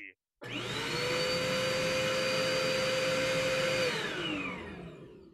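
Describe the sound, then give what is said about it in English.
A vacuum cleaner, used to vacuum the bridge, switches on abruptly and runs with a loud, steady whine and motor drone for several seconds, then starts winding down as the pitch drops near the end. “Captain, I realized that no one vacuumed the bridge before we left.”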